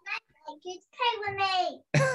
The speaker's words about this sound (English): That noise is not me. That noise is my son. Just to confirm.